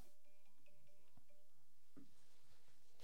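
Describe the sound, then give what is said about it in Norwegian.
A phone rings with a short electronic ringtone melody of steady tones. It is fairly quiet, followed by a few soft clicks and rustling. “Hva er det telefonringing.”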